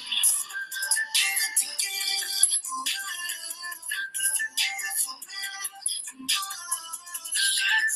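A whistled melody runs through a busy stretch of music, its bright, clear tones rising and falling over layered instrumental backing at a steady, fairly loud level, with no voices present.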